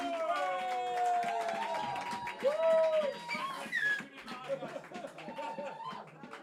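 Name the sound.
audience applauding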